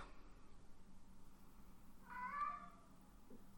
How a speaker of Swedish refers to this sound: Nu håller min katt på att skrika halsen av sig här. Mm. Det är väl för att han ska berätta att han har varit på dass tror jag.